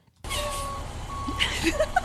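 Steady electronic backing-up beeps from a reversing bus sound over a low engine rumble, with a few higher chirps near the end. The whole short burst is fairly loud.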